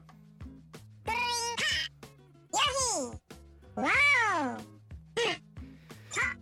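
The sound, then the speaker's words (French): The voice of Yoshi, the little green dinosaur character from the Mario video game universe: a string of squeaky, high-pitched chirps and yelps with swooping pitch, fairly loud, with short pauses between calls and no talking. “Yoshi, le petit dinosaure vert de l'univers de Mario.”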